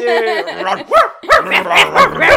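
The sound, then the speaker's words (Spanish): A dog lets out a drawn-out whine, then a quick run of about five sharp, high-pitched barks in an uneven rhythm, loud and alone. “Pero quiero hacer un saludo especial para el perro de Vane, ah.”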